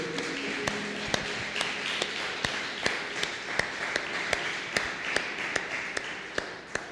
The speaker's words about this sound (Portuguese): Você pode aplaudir o texto que nós lemos aqui, irmão. A palavra é viva.